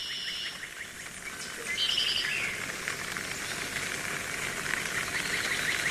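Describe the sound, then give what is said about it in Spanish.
Steady rain patters in an even hiss across the vegetated cloister of a monastery, while birds chirp and trill intermittently in the background. No one speaks. “La vegetación le da un aire melancólico, umbrío, sosegado, acrecentado por el sonido de la lluvia.”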